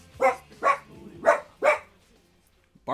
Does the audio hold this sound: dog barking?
yes